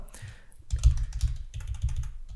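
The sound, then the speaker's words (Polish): Rapid computer keyboard typing, a dense run of crisp key clicks with slightly uneven rhythm, heard alone without any voices. “Uwaga, moi drodzy, będą odgłosy, będą odgłosy klikania.”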